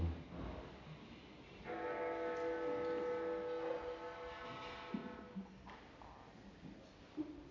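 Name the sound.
bell ringing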